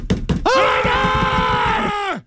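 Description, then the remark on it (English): A man's voice imitates radio broadcaster Scott Zolak yelling, a loud sustained shout held for well over a second after two brief clipped syllables, ending abruptly. “Scott Zolak yelling in the background.”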